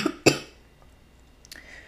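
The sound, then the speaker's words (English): Two quick, sharp, loud coughs in close succession from a person with a shot ready to drink, followed by a quiet stretch with a faint click near the end. No one speaks. “Not me pre coughing because already I'm like, ooh.”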